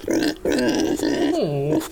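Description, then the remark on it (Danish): A little pig grunts in three loud, throaty bursts run together, the last one sliding down into a lower, drawn-out squeal. “Prøv, prøv, bare, bare lige prøv at høre det her. Den lille gris.”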